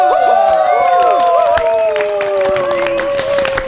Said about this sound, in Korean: 박수!